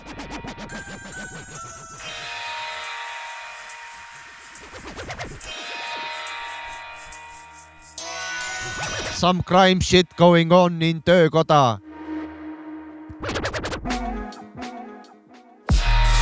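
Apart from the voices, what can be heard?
rap song played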